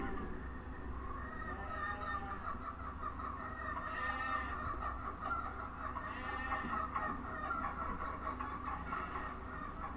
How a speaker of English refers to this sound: There was a cow. I swear I heard a cow as well as these weird repeating chickens.